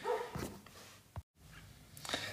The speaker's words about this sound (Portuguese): Peço desculpa, arredi é uma dor, mas a minha cadela estava tá a ladrar no fundo.